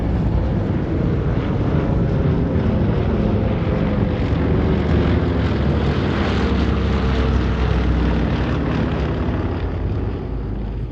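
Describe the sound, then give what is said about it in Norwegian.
A loud, continuous drone of about 170 large American propeller bomber planes coming in waves over a narrow valley and dropping their bombs, a dense roar of engines passing overhead with a slight swell in the middle and no voices. “De kom jo i bølger over dalen og slapp bombelasten sin, og så forsvant de igjen.”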